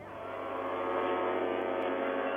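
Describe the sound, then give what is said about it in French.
The horn of the ocean liner Norway, formerly the France, sounds in farewell in one long, steady blast, loud and sustained throughout with a rich, droning tone and no voices. “en signe d'adieu, la sirène du Norway a retenti trois fois”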